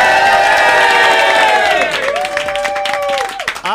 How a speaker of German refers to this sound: Ganz viele ehemalige Kollegen sind im Studio und ich bitte euch jetzt erstmal alle nochmal richtig Lärm zu machen, Leute, damit Aachen nochmal euch hören kann. Yeah!